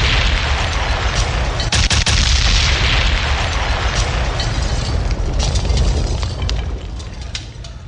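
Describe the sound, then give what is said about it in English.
A loud gunshot sound effect: sharp cracks burst out in quick clusters over a constant heavy, booming rumble that fills the whole stretch, easing only slightly at the end. No one speaks. “You can gunshot.”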